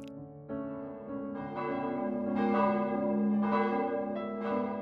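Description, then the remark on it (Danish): Church bells ring out across Denmark for reunification celebrations, several overlapping strikes blending into a rich, sustained ringing that swells in waves, fairly loud and resonant with no voices present. “juni, så blev den egentlige genforeningsdato, ja, så blev der holdt mange glædelige fester og der blev ringet med kirkeklokker over hele Danmark.”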